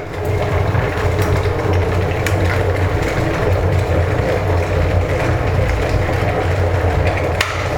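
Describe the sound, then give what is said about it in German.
An electric kettle rumbles steadily as the water comes to a boil, a dense, continuous roar with a low hum and faint crackles, with no talking over it. “Jetzt fängt das Wasser gleich an zu kochen und dann genau, das Geräusch kennt ihr.”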